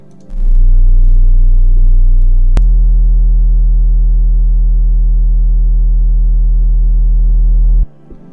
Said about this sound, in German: Das heißt, das sind Frequenzen um 20 bis 40 Hertz. Da wollen wir jetzt mal ganz kurz reinhören, beziehungsweise uns die Schwingungen anhören.